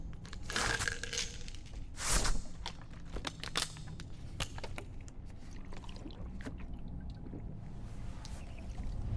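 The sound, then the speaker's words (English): Water sloshes and splashes in a container, with irregular wet clicks and one louder gush early on, over a low background rumble and no voices. “You got any water? Here.”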